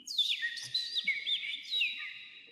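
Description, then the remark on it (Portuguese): A person whistles rapid, bird-like chirps and trills, mimicking birdsong in a continuous run of high, warbling notes, clear and close with no talking. “Eu sei imitar pássaros, estás a ver?”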